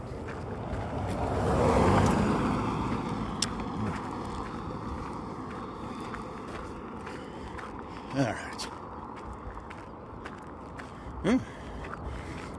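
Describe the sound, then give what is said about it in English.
A car passes on a road, its whooshing rumble swelling and then fading away, with steady outdoor background noise and a couple of brief clicks later on. “Got another car coming here, so we'll take another sip of caramel ribbon crunch.”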